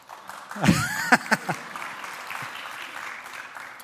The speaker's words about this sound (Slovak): Karl Gott, tleskejte, mám to rád.